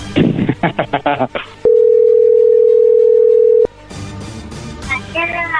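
A telephone rings on the line as a call is being dialed: one loud, steady, mid-pitched electronic tone holds for about two seconds, with voices talking before and after it.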